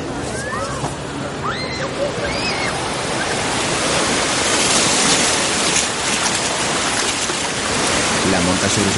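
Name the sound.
sea water splashing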